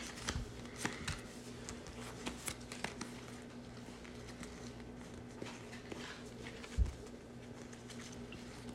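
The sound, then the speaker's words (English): Soft, scattered flicks and slaps of Uno cards being flipped and laid down at an irregular pace during a card game, quiet, over a steady low electrical hum with no talking. “Yeah, just little like flips little... of the Uno.”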